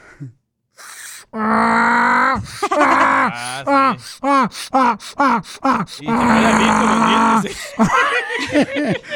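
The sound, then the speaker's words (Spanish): A person loudly imitates a donkey's bray, with long strained vocal bursts and a run of rhythmic, rising-and-falling hee-haw cries that switch between high and low pitch. “Yo, por ejemplo, puedo hacer la de burro.”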